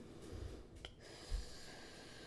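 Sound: slow deep breathing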